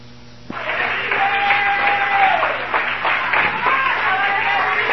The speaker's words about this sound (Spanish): Den un aplauso.